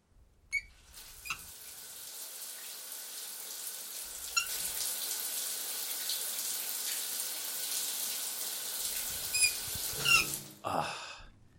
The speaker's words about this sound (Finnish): Voisi ottaa tähän aamun alkamiseksi pitkän lämpimän suihkun. Hetkinen, onko muu suihku aina ollut nuin päin?